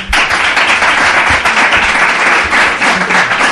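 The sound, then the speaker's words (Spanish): A crowd of members of the Veracruz brotherhood applauds steadily at the Casa Hermandad de la Veracruz, dense overlapping claps forming a loud, continuous wash of sound that holds at an even level throughout, with no voices standing out. “Sí que voy a pedirles a los muchos cofrades que tenemos aquí, pues bueno, un aplauso para que nuestros oyentes entiendan que estáis aquí.”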